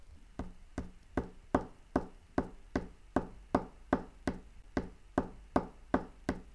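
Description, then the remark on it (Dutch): A single finger taps steadily on a table to imitate rain, about seventeen light, even knocks in a regular rhythm, fairly soft, with no voices. “Tik maar eens met één vinger op de tafel of op de grond.”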